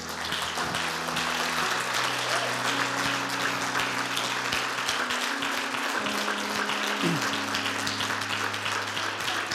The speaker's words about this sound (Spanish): ¿Y por qué no le damos un aplauso a Dios por esto?